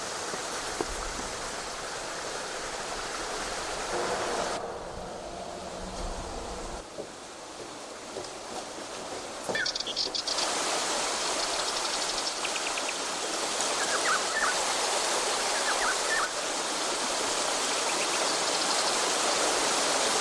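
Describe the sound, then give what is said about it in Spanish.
Water from a flowing stream rushes and babbles steadily among rocks at the site of an early monastery in Burgos province, Spain, with a brief quieter stretch partway through before the full rushing returns. No one speaks. “El agua, la roca, las celdas, el lugar religioso.”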